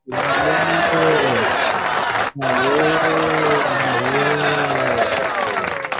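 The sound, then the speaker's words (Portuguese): Sustained applause from an audience, a dense steady wash of clapping mixed with voices cheering and shouting, with a brief break partway through before it resumes just as loud. “Mais palmas, mais palmas, mais palmas.”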